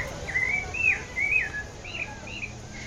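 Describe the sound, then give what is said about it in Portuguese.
A string of thin, high chirps from sabiá thrush chicks in a nest in a yellow tree on a street, repeating in short rising and falling calls over a steady low background hum, moderately loud. “um ninho de passarinho. E são sabiás.”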